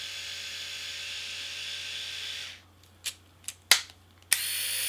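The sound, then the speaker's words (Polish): The motor of a Remington electric rotary shaver, started with the power button, whirs in a steady, buzzing hum, stops abruptly, then a few sharp clicks sound before the motor starts up again. “Tak pracuje silnik golarki.”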